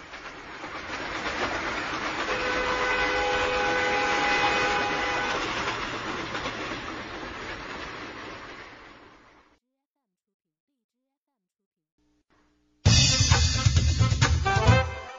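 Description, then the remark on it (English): A train rumbles steadily along the tracks with a high metallic squeal, then fades away into silence; after a short pause, a loud, unrelated burst of sound cuts in. “can go on a train.”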